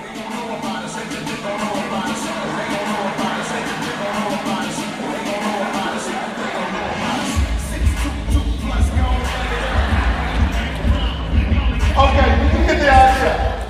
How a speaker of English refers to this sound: And so I'm blowing bubbles, as he walks out to his song, would you mind playing the song while I blow bubbles? This is his walkout song.